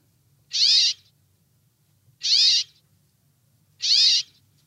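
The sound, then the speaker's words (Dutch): A brambling gives its short, nasal call three times at steady intervals of about a second and a half, each note clear, over a faint low rumble. “Ah, een heel kort roepje, Paul.”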